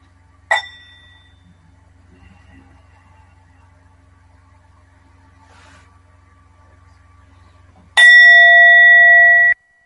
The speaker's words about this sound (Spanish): que la siguiente campana se permitan estar aquí y ahora.